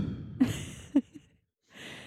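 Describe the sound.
A person imitates how a man breathes out through his mouth while sleeping, with short, soft puffs of air blown out through the lips, two or three quick breathy pops, followed by a brief pause and a faint exhale.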